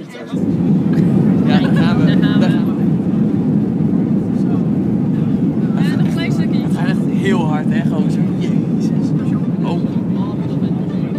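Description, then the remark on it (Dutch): Airplane cabin noise before takeoff on a return flight from Rome: a steady, loud, low engine and ventilation drone fills the whole stretch, with indistinct voices murmuring over it. “Terug in het vliegtuig. En we gaan zo meteen opstijgen.”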